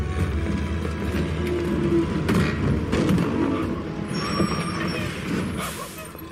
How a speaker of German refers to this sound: In einem Laster Richtung Wuselwärts.